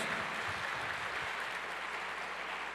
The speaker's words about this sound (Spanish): Dele fuerte ese aplauso al que vive por los siglos de los siglos.